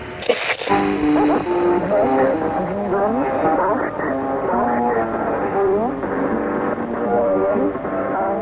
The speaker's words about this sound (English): The weird sounds that you're hearing right now are recordings from actual shortwave radio stations.